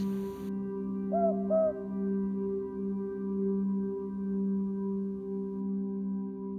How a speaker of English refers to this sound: I was lying in the bunk bed, my heart breaking at the profound, prolonged silence. And then out of the dark comes a boobook owl call. And I cried myself to sleep with happiness